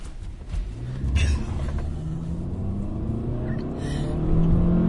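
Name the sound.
car approaching and passing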